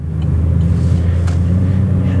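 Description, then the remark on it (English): A car's engine rumbles low and steady throughout as it makes a turn, a continuous droning hum with no voices over it. “making a turn here, folks.”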